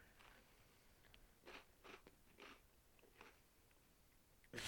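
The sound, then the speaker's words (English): Chips crunching as someone eats, a handful of crisp, uneven bites, fairly quiet, with no talking, then a louder rustle right at the end. “Just your chips fucking crunching.”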